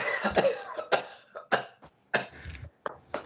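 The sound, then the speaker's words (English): A man clears his throat several times in a row, a series of rough, guttural hacks and coughs, each burst short with brief pauses between. “let me clear my throat for this one.”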